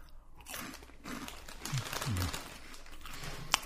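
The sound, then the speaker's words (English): Crunching of crisp snacks from a half-full bag of a PepsiCo-owned brand, with several brittle bites and chews in quick succession, a faint rustle of the bag, and a sharp click near the end. No one speaks. “This bag is half full. I'm probably not going to finish it, but get a couple more crunches in there.”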